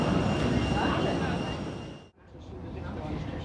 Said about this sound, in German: So, die nächste kommt rein. Ist jetzt auch eine kleinere Maschine, kann man gerade so noch als Flugzeug anerkennen sieht man auch gar nicht.